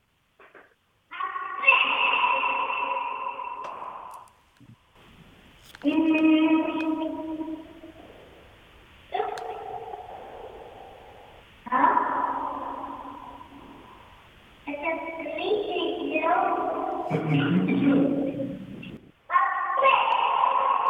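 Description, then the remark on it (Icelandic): A small boy's drawn-out squeals and wavering vocal sounds come in about five bursts, each trailing off into a strong, ringing echo that lingers, recorded in an echo chamber. “það er alltaf gaman að heyra hvernig strákurinn bregst við þannig að nú ætlum ég að prófa að spila þetta og við snúum sjá hvort þú getur náðu þessu inn á upptöku þannig að fyrst er það í svona bergmálsherbyggi”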